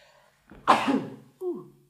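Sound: sneeze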